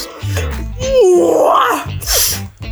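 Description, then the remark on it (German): A person imitates an owl's hoot, one drawn-out, wavering call that swoops up and down in pitch, followed by a short breathy burst. “Komische Eule.”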